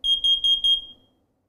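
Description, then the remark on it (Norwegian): A smoke and carbon monoxide detector running its test program shrieks in four rapid, piercing high-pitched pulses, loud, then the tone cuts off and fades into silence. “Og det var røykvarsleren. Den funka.”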